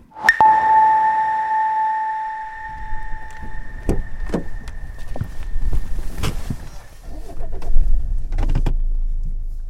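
A sustained electronic chime tone opens, then the low rumble of a car interior on the move sets in, with scattered clicks and soft thumps, as the car drives to a specialized medical facility. No one speaks.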